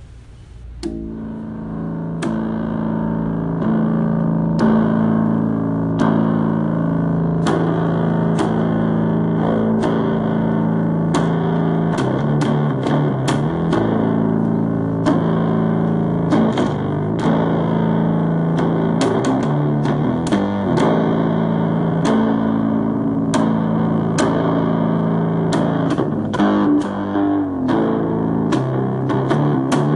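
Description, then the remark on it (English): A bass ukulele plays a steady run of low, sustained notes with sharp plucked attacks, sounding heavily distorted and loud throughout, with no voices. “I just got an ukulele, but it's a bass ukulele. I figured you probably appreciate this. Let me play a little for you here.”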